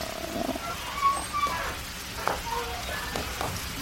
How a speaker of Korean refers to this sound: 아. 시원하다. 어? 비가 내리네?